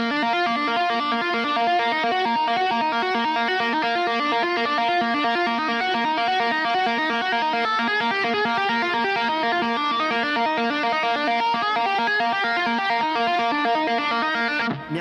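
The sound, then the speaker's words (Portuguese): A heavily distorted electric guitar, played with left-hand-only hammer-ons and pull-offs and the right hand not touching the strings, plays a fast, continuous, loud run of notes that flow smoothly into one another, with no voices over it for about fifteen seconds. “Não, na guitarra tem o um negócio dos hammer off, que você usa só a mão esquerda e o som já sai gritando.”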